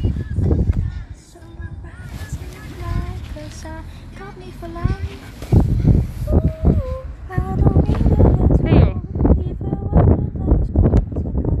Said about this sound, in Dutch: Jongen, het waait alleen nog maar harder.